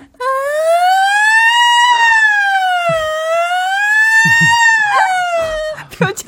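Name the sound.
voice imitating a siren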